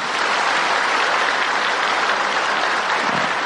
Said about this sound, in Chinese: 所以我我非常感谢啊，我们中兴大学的校长啊，跟系主任啊。国文系系主任主办这个，我们为他鼓掌，谢谢他们啊！